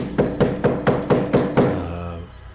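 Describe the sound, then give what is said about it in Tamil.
Someone knocks on a house door: six firm, evenly paced knocks, the last one trailing into a short low ringing decay. No voices accompany the knocking. “திடீர்னு பார்த்தா வீட்டு கதவு தட்டுறாங்க”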